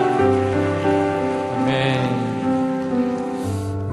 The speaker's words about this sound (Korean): 우리 사랑해주신 하나님께 다시 한번 감사와 찬양의 박수 올려드리시겠습니다. 주님 찬양합니다.